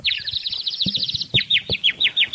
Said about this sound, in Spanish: Hay pajaritos en el, en el, en el estudio.